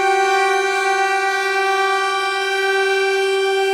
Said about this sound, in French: Ah pardon, faut que je monte le son. Complexe pad plus reverb, attendez.